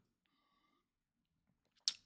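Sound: sip of water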